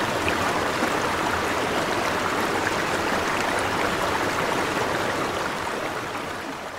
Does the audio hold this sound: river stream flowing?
yes